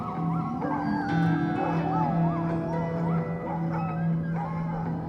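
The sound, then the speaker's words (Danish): A pack of sled dogs howls and yips together in a continuous, wavering chorus, with a steady low hum running underneath throughout, as Norwegian musher Leonard Seppala drives the team across the ice and shouts encouragement to them in a storm over Alaska in 1925. “Det er året 1925, og midt på isen kører nordmanden Leonard Seppala og råber opmuntrende til sine slædehunde.”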